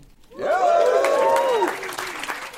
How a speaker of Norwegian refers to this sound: Og det publikum står på sine føtter til enorm jubel, så går showet i gang.